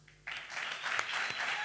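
Audience applause bursts in abruptly after a brief quiet moment, a dense, steady wash of many hands clapping at a fairly loud level, with a few sharper individual claps standing out.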